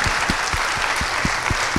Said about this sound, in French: Moi d'abord, avant d'entamer le débrief, je voudrais vraiment qu'on applaudisse